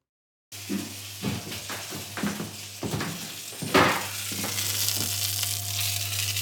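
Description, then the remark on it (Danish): A ginger frankfurter sausage of the WH brand frying in a pan: a steady sizzle with crackling pops and bursts, rising into a denser hiss toward the end, over a low constant hum. “Lyden er en frankfurter, der steger.”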